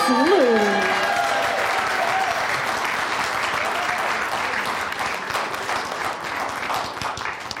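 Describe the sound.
Sustained applause from an audience, a dense, steady clatter of many hands clapping for several seconds, with a brief voice and a rising whistle-like call near the start.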